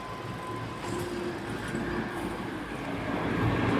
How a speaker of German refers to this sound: Ja, wir gehen da weiter im zweiten Bezirk. Man hört natürlich ähm, Fahrradfahrer, Autos.